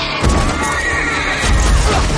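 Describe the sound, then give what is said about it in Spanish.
On a fog-covered battlefield, a horse whinnies loudly and shrilly as two dead men knock it down, its cry wavering over a dense rumble of battle noise and heavy low-end thuds, chaotic throughout. “Dos muertos derriban al caballo.”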